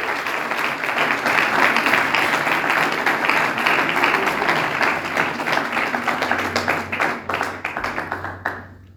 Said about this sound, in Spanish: ¿Le puedes dar una ofrenda de palmas a Dios? Porque Él es el mejor amigo que podemos recibir.